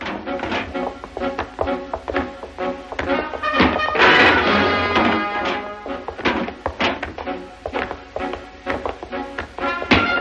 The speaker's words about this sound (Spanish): Obelix derriba la puerta aplastando al guardia. Derriba puertas y guardias y pasa sobre ellos.